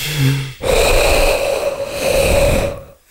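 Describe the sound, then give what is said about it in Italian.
A voice imitates a horse snorting: a brief low hum, then one long, loud, fluttering blast of breath through the lips lasting over two seconds. “è un cavallo eh?”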